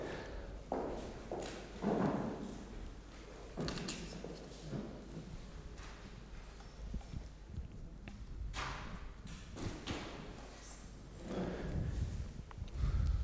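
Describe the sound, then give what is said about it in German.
Footsteps with irregular, hard thuds against a low background rumble, growing somewhat louder toward the end as someone approaches. No one speaks. “Ja, da kommt jemand.”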